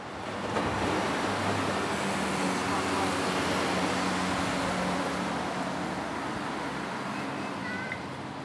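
Busy city street traffic with buses at a traffic hub in Nørrebro, a steady, dense roar of passing vehicles and low engine rumble filling the scene continuously, fairly loud throughout.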